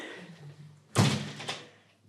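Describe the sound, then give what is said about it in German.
Two knocks on a hotel room door, a firm thud followed half a second later by a softer second rap, with no talking. “Klopf, klopf.”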